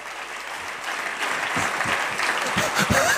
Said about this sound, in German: Gib mir mal einen Applaus hier einfach, ja.